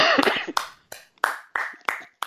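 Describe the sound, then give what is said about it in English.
Slow, deliberate hand claps, about six sharp loud smacks spaced roughly a third of a second apart, each ringing briefly. A short burst of voice-like noise comes just before them. “Clap Clap it up.”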